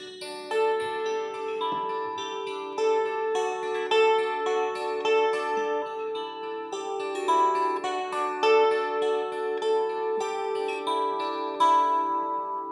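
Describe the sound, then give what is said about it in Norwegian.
A newly made kantele zither, finished the day before, with a lid of Pasvik pine and a body of Pasvik birch, is plucked in a steady, ringing melody, bright overlapping string tones sustaining and blending, clear with no voices. “Den lyden du hørte nå, det er jo en kantre som ble lagd ferdig i går.”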